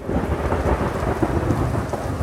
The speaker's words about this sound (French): Tandis que le président lit l'acte d'accusation, éclate un orage terrible.